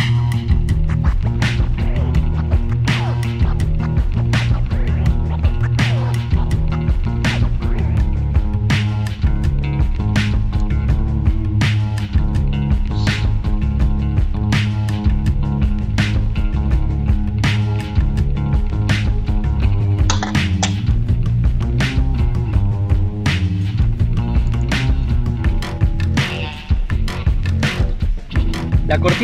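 A recorded song plays continuously and loudly, with heavy low bass lines, layered instruments and a steady, regular percussive beat throughout, no voices talking over it.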